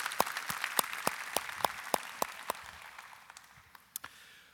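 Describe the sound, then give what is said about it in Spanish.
An audience applauds at a church service, a dense patter of clapping with a few sharp, distinct claps standing out, gradually thinning and fading over a few seconds with no one speaking. “Y por qué no les damos un fuerte aplauso también.”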